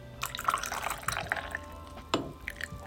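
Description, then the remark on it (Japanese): Water sloshes and swirls inside a small Japanese teapot (kyusu), filled less than halfway with hot water and being swirled around: a soft liquid rustle with bright little splashes and drips, including a sharper splash near the end, with no one talking. “ポイントはお湯の量ですこれねいっぱい入れちゃいけないんですよ急須の半分以下で入れてくださいで急須を回しますこれ今回してる音で”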